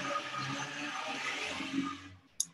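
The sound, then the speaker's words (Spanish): A loud, steady rush of outdoor street noise, like a vehicle passing with a low engine rumble, fading out after about two seconds, followed by a brief sharp click. “perdón por el ruido de la calle”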